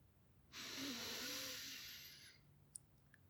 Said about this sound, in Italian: Inspira.